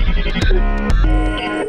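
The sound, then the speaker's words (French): A short electronic quiz-show effect of the game computer removing two wrong answers for a 50-50 lifeline: sustained synthetic tones punctuated by two sharp swooshing hits, loud, with no talking. “c'est le bruit de l'ordinateur.”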